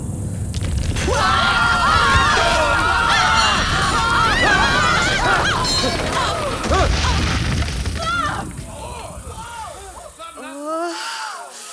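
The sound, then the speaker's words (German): A deep, sustained rumbling roar of an earthquake, with crashing debris and a crowd of people screaming and shrieking over it, all loud before thinning out near the end. “Was war das für eine Scheiße? Das war ein Erdbeben.”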